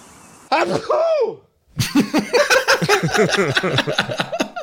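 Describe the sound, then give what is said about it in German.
A single loud sneeze bursts out, trails off into a brief silence, and is followed by a stretch of rapid, rhythmic laughter and chatter from several voices. “Gesundheit, wer Dankeschön.”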